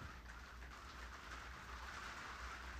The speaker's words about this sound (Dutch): Het begint ineens heel hard te regenen, dus ik hoop dat jullie mij gewoon nog fatsoenlijk kunnen horen.